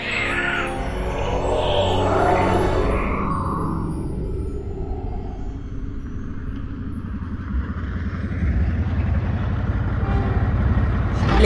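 A car drives along a road with a steady, close engine rumble and road noise throughout, and a brief higher whine near the start. No one speaks.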